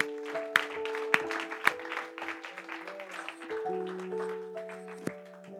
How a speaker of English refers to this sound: Give a clap offering to the Lord if you would.